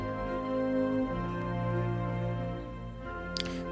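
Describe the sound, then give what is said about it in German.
Broad, epic trumpet fanfare music plays alone, with loud sustained brass chords that shift a few times before softening near the end, followed by a faint click. “Also das ist jetzt Epic Broad Panoramic Awakening Trumpet Let Fanfares.”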